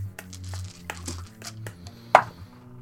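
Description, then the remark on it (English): New dice are rolled for a perception check in a game, clattering across a hard surface in a quick run of sharp, irregular clicks, ending with one louder knock as they settle. No one speaks, and a low hum sits underneath. “We're rolling early in this game. Well, I just got some new dice, so I am very excited to try them.”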